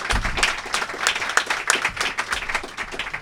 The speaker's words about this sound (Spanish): Muchas gracias por recibirnos. Un aplauso para el anfitrión.